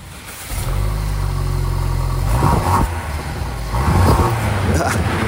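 A car engine cranks and catches, settling into a steady rumble, then is revved twice in strong bursts that rise and fall, loud.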